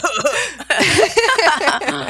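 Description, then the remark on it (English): A voice imitates coughing, two mock coughs said aloud with a laughing edge, a short, loud, breathy burst of vocal sound. “cough cough.”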